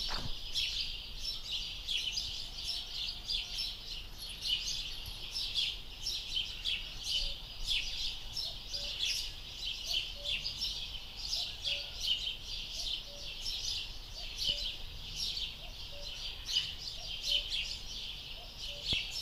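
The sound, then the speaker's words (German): Steady birdsong heard through an open window, recorded by holding the device out of the window, a dense chorus of high chirps and trills repeating throughout, with soft low cooing notes underneath and no one speaking. “Das heißt, jetzt müsste man die eigentlich richtig schön ranholen können, die Vögel.”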